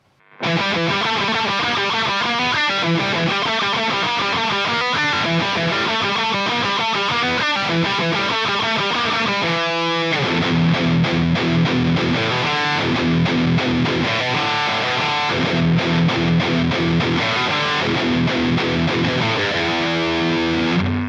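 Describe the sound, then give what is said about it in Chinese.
A distorted electric guitar amp, recorded with an SM57 microphone placed directly against the grille cloth in front of the speaker, giving a lot of low end, plays continuously for about twenty seconds: dense crunchy chords at first, then a heavier, bass-rich chugging riff in the second half. No one speaks. “首先呢，咱们把话筒啊直接贴在音箱喇叭前面的网罩上，这个时候呢，你就会得到非常非常多的低频，哎，声音就会显得很肉头。”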